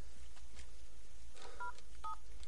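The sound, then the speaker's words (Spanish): A couple of short, clear electronic keypad beeps as someone dials a number on a mobile phone whose battery shows a single bar, each a brief dual-tone chirp, against a quiet, low rumbling background. “Enciende el móvil y vuelve a fijarse en la batería, que marca una sola raya agacha la cabeza lamentándose y marca un número.”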